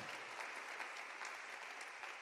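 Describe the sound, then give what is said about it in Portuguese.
A church audience applauds the Lord during a morning service, a dense, steady wash of many hands clapping at once, sustained at an even level throughout with no voices standing out. “Você pode aplaudir mais uma vez o Senhor nessa manhã maravilhosa”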